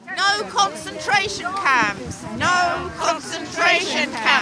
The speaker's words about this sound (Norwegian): Refugees are welcome here. Flyktninger er velkomne her, roper en gruppe demonstranter utenfor en tidligere militærleir som i vinter ble til et mottakssenter for asylsøkere.